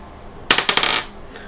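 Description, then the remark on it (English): Two six-sided dice clatter across a hard surface in a quick burst of sharp, bright knocks lasting about half a second, then settle into quiet. No one speaks. “So it'd be, Uh, it's two d six plus two d six.”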